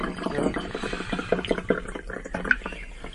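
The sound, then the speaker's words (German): Chardonnay wine glugs into a glass, a gurgling, bubbly pour with a rising liquid patter that runs for a few seconds without any talking. “Ich schenke dir noch ein.”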